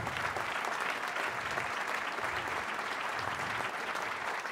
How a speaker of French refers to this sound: que l'on applaudit bien fort.